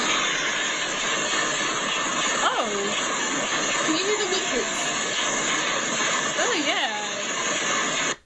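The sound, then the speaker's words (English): A person imitates foxes mating at night with a few short, wavering, screechy wails that swoop up and down in pitch, set against a steady, loud, roaring engine-like drone. “It, it, sounds like when you hear like foxes mating at night.”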